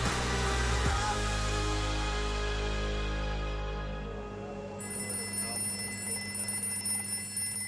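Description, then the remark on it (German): A telephone rings in the Coast Guard command center in Juneau, Alaska, with a bright, steady electronic tone over a deep, continuous rumble, the ringing growing sharper and more prominent in the second half. “der Kommandant der Küstenwache, rennt quer durch den Raum zum Telefon.”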